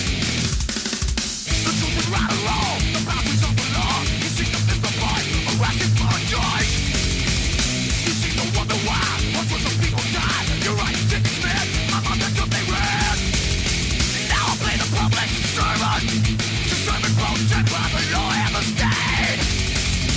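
A heavy metal song plays loudly and continuously, a dense wall of distorted guitars and pounding drums with harsh, raspy vocals, steady in volume throughout.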